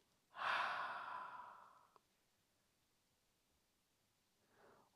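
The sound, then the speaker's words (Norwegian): After breathing in through the nose, a single long, breathy exhale through the mouth, fairly loud, fading out over about a second and a half, followed by silence and then a soft intake of breath. “Og ut gjennom munnen.”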